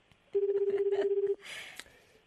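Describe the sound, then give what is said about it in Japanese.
A single one-second burst of a phone ringback tone from a call to a mobile phone, a steady low warbling buzz heard through the line, followed by a short hiss of line noise. No one speaks. “5回までですね携帯におかけしました5回まで”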